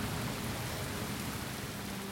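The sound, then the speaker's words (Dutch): Steady rain pours down in a continuous, even hiss with a low rumbling undertone, filling the scene without pause or voices. “Regen, regen en nog meer regen.”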